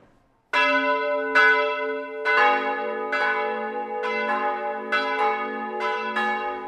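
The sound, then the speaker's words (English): A church bell rings the Angelus, loud, with repeated strikes roughly every second whose rich, ringing overtones sustain and overlap into one another. No voices are heard. “When the Angelus bell rang at school, I was supposed to kneel and pray to God, but I was hungry and ate my lunch instead.”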